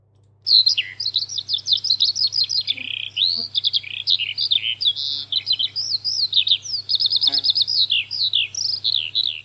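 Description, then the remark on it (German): A Eurasian skylark sings a long, unbroken stream of rapid, high-pitched warbling trills and chirps, bright, pouring on continuously for several seconds with a faint low hum underneath. “Also Feldlerche ist der Vogel des Jahres.”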